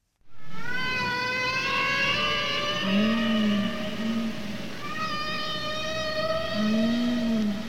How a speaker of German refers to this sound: So klingt es, wenn ein Buckelwal singt. Allerdings nur, wenn es für unsere Ohren aufbereitet ist. Denn eigentlich sind die Laute so tief, dass Menschen sie in der Regel nicht hören.